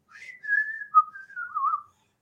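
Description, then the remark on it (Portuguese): A person whistles a short, simple melody alone, the tone gliding between a few sustained notes over about two seconds at moderate volume. “Não, mas é porque assim, eu, eu assobio o básico, né?”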